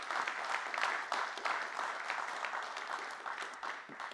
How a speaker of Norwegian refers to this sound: Og det har sikkert skjedd, så ja, det går an å klappe for.